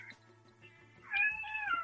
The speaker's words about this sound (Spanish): Ay, esa es mi gata. Ay, Perdón.